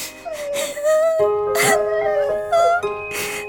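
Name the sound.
child whimpering and crying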